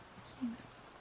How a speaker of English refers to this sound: Enjoy the rain sounds.